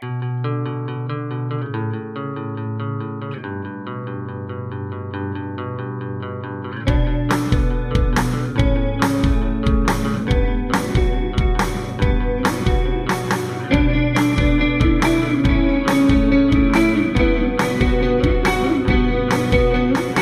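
A band's song begins with sustained, effects-laden electric guitar chords, then drums and fuller instrumentation kick in at a steady driving beat, the guitars washed in echo and chorus.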